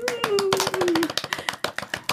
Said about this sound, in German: Man muss auch mal für sich selber klatschen. Ja, man Muss, Außerdem ist es halt cooler, wenn halt ein paar mehr noch klatschen.